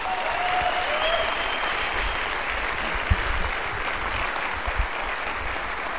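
An audience applauds steadily for several seconds, a dense, even wash of clapping with a brief whistle near the start and no one speaking.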